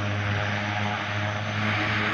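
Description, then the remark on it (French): An old propeller airplane engine drones steadily and loudly, its low harmonic hum holding constant throughout with a broad rushing roar on top, no voices present. “Donc voilà, donc un premier avion, un vieil avion”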